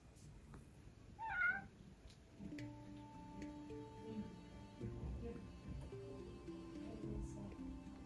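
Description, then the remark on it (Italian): A single short meow from a cat entering the room, rising then falling in pitch, followed by several seconds of steady, sustained tones underneath with no further meowing. “Scusate, è entrato il mio gatto.”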